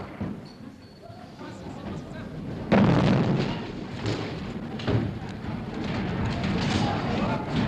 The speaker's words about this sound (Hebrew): פצצה! פצצה. אה, את שומעת שהפצצה נפלה, אבל הוא סיים את המשפט.